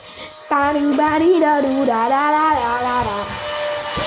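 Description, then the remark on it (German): A vacuum cleaner drones steadily in the background throughout, while a loud, whining vocal sound with sliding pitch rises over it after the first half second. “Das ist nur der Staubsauger.”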